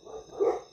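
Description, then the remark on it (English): A dog barks once, muffled and fairly faint, over a steady high-pitched electrical whine. No one speaks. “And again, I apologize about the dogs”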